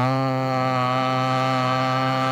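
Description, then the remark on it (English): Voices chanting the Sanskrit syllable "ah" in unison, one unbroken sustained tone, loud, holding a constant pitch with no pauses or speech. “So let's just sing or chant the sound ah for a minute and sit with some stillness after that.”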